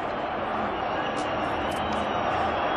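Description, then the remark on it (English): A huge crowd of about 200,000 people in Cairo roars its victory cry as Mubarak's rule comes to an end in February 2011: a dense, unbroken wall of voices, steady and loud throughout with no single speaker standing out, like a vast outdoor gathering cheering together. “today was labelled a day of confrontation and Hosni Mubarak could no longer stand up to the 200,000 people that are just roaring their victory cry.”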